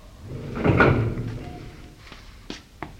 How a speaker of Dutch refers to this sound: er is niets aan de hand. Alleen maar de deuren van de lift.